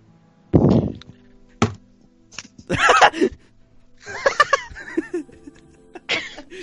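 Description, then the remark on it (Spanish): Someone imitates a horse neighing, a run of wavering, breathy vocal bursts mixed with laughter-like sounds and a few dull thumps. “Qué imitación más buena esa, weón.”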